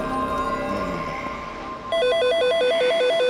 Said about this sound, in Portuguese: Eu acordei assustado, com o som do telefone tocando.